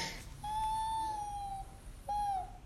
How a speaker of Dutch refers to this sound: Echt zo'n gil. Heel hard, heel hoog inderdaad, ja.